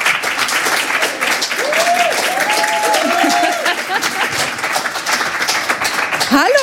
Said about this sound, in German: Ich bitte Sie um einen tosenden Applaus und ich erzähle Ihnen zu beiden gleich natürlich auch noch ein bisschen mehr.